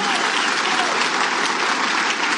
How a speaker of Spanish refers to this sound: ¿Quiénes de los que están aquí son nuevos o están aquí por primera vez? ¿Se podrían poner de pie, por favor? Y un fuerte aplauso para todos ellos. Un fuerte aplauso.